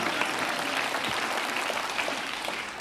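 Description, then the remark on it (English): A crowd claps steadily for a few seconds, a dense, even wash of many hands applauding with no pauses, fairly loud. “you can applaud if you feel so inclined.”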